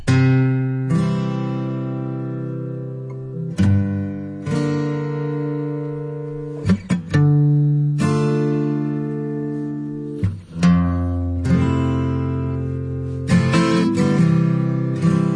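The latest pop song by a singer from the local region plays loud and clear, with rich sustained tones shifting every second or two and brief percussive accents between phrases, and nobody talks over it.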